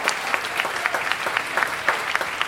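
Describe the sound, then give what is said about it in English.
An audience applauds Jeremy Neale, many hands clapping steadily in a dense, bright patter of overlapping claps at a fairly even level throughout, with no voices over it. “Give it up for Jeremy Neale, everyone”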